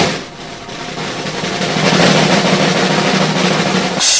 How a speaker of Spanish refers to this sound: Ponme el redoble de tambores.